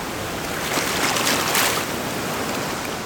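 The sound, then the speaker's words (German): Water of the Isel, one of the last wild rivers in Europe, rushes steadily past, heard from the bank, a dense continuous hiss that swells slightly in the middle with no voices. “einer der letzten wilden Flüsse Europas so hört sich die Isel vom Ufer aus an, aber wir wollen heute unter anderem herausfinden, wie es sich anfühlt, im Fluss zu sein.”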